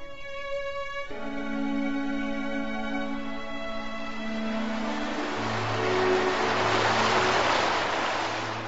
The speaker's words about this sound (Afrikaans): Genagtig. Ek het die rivier nog nooit so gesien nie. Hy's oor sy walle, pappa.